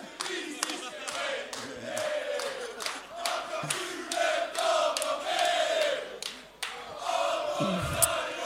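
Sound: audience cheering to vote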